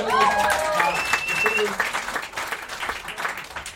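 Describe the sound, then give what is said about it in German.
A short burst of applause from a small group for a young man, steady clapping lasting a few seconds, with a voice speaking over the start before the clapping carries on alone. “Kleiner Applaus für den jungen Mann”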